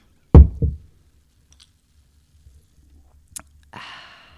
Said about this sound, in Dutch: Nu neem ik een slokje.